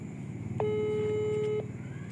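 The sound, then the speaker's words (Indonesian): A phone call's ringing tone sounds once, a steady electronic tone lasting about a second, clear and fairly loud over a low, continuous background rumble; the call goes unanswered. “wah oh, cuma berdering guys ah wah dianya sibuk guys”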